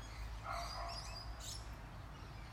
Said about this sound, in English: God, what's that dog barking at?